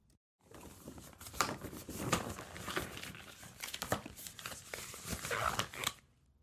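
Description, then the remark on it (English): Rubber gloves being pulled on before a digital rectal exam, a continuous run of stretchy crinkling and snapping rustles lasting several seconds, with no voices. “Here, just let me get these rubber gloves on.”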